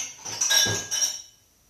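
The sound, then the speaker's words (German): A shake glass clinks as it is picked up and set down on a hard surface, a couple of bright knocks with a faint ringing tone, followed by quiet. “Ähm, aber so, ich hole schon ein Glas und mir dann ein schönes Shake-Glas.”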